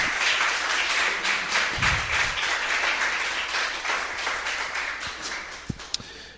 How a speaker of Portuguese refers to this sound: E assim que você se ajustar na cadeira e aplauda a palavra do Senhor Jesus, ele é digno, a palavra de Deus merece.